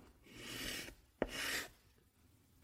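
Chalk scrapes across a blackboard in two long, gritty strokes, fairly loud, with a sharp tap as the chalk meets the board before the second stroke and again at the end.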